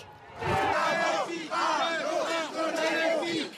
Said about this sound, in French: Une arrivée sous les huées